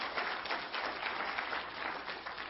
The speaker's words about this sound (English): Yeah, you, you can clap.